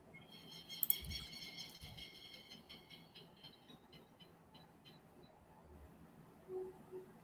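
Small birds chirp outdoors in quick, high-pitched bursts, busiest in the first few seconds, then thinning out. The chirping is faint, over a low background rumble.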